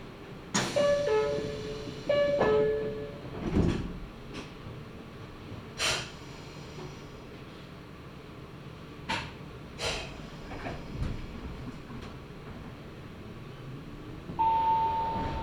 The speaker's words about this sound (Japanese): まもなく発車をいたしますご乗車になってお待ちください吉良吉田行き発車いたしますドアが閉まりますご注意ください